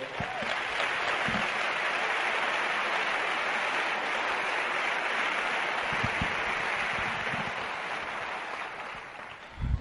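Sustained audience applause, a dense, steady wash of many hands clapping at once, holding at an even level for about ten seconds before tapering slightly at the end, with no talking.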